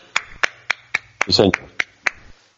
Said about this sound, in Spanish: Mira, está la gente aplaudiendo, ¿escuchas? Sí, ahora, mismo son las 8 y un aplauso desde aquí también, hombre.